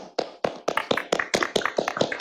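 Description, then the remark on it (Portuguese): Steady, rhythmic hand clapping, about ten sharp claps at an even pace, moderately loud with no talking over it. “Uma salva de palmas para Ferd.”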